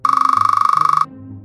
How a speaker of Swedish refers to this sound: Vi gör ett försök. Tänk dig att varje pip här är när en bild registreras med en övervakningskamera. Och tänk nu att varje pip här är när en bild registreras med en vanlig videokamera.